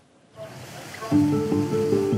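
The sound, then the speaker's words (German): Sea waves wash and rush steadily around a converted fishing trawler carrying nearly 50 tourists whale-watching in the Norwegian Sea off Andenes, Norway, rising in after a quiet moment, with a low droning hum joining beneath the surf halfway through. “Knapp 50 Touristen an Bord des umgebauten Fischtrawlers. Die Urlauber wollen Wale beobachten, hier in der norwegischen See vor Andenes.”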